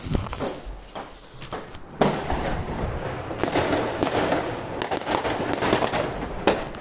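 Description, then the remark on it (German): A dense barrage of New Year's Eve firecrackers, set off by neighbours at 23:59, bursts outside, sharp cracks and pops overlapping in rapid, irregular succession over a constant rumbling backdrop, fairly loud and continuous throughout. “wenn ihr diese Folge hört, ist es bei mir, wenn ich diese Folge aufnehme, es ist gerade 23.59 Uhr und Digga, hört euch mal diese Böller an.”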